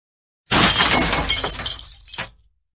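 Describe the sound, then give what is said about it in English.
A bridge chair is spun and smashed hard against a marble column in one loud crash, followed by about two seconds of splintering, clattering debris that trails off into silence. No one speaks. “Korsin spun and shattered his bridge chair against a marble column.”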